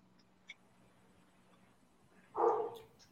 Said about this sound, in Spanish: Perdón, el perro está opinando, un segundo.